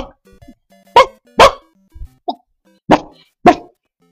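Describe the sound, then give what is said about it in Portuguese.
A voice imitates the strange noise made by a sleeping dog: four short, loud, gruff bark-like bursts in two pairs, with a small squeaky yelp between them. “Aí eu falei, mano, que cachorro esquisito é esse aí, mano?”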